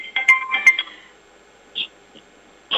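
A mobile phone ringtone for an incoming call plays a quick run of bright electronic melody notes for about a second, then a few short isolated beeps follow, moderately loud with no talking.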